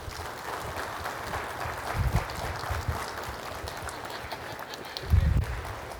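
An audience applauds steadily for the whole stretch, a dense, even wash of many hands clapping, with a couple of brief low thumping swells partway through.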